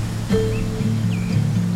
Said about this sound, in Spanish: Y eso que aparece ahora y hace mover todas las hojas. Eso es el viento